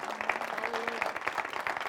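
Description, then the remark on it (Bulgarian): A church audience applauds steadily, many hands clapping in a dense, continuous patter that holds at a fairly even loudness for the whole two seconds. “Да, може да ръкопляскате за това.”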